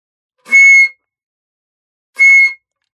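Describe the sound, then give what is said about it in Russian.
A flute sounds two short, loud high notes at the same pitch, each lasting about half a second, separated by a pause of over a second of silence. “А какой диапазон у флейты получается? от си малой октавы до до четвертой октавы.”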